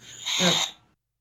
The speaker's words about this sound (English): it's definitely my Batman walkie talkie